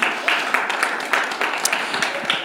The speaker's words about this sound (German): Voll cool, vielen Dank euch. Es ist keine Selbstverständlichkeit. Hammer. Komm, wir geben euch nochmal einen ganz großen Applaus. Vielen, vielen Dank.